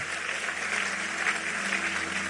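People clap steadily, a dense, continuous wash of applause that stays even throughout, with no voices rising above it.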